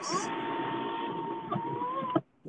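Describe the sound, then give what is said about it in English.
A car sunroof motor, closing the sunroof because it started raining, whirs steadily for about two seconds, a buzzing mechanical drone with a thin whine on top, then shuts off with a firm clunk as it closes, leaving a brief soft knock. “I had to close my sunroof.”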